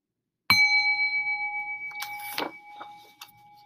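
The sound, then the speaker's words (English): A new bicycle bell on a shiny red bike, a bell that makes four different sounds, is struck once with a bright metallic ting that rings out and slowly fades, while faint rattling and clicking noises follow partway through the decay. “But he looked at his bike and was tempted by its shiny red paint and its new bell that made four different sounds. Ting a ling a ling.”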